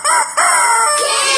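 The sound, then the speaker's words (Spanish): A loud rooster crows once, a strained, high-pitched call in a few drawn-out segments that rise and then trail off, with no talking over it. “Bartolito era un gallo que vivía muy feliz. Cuando el sol aparecía, Bartolito cantaba así.”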